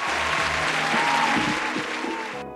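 Sustained applause from a group of people, a dense, steady crackle of many hands clapping at even loudness, with faint cheering tones underneath, cutting off abruptly at the end.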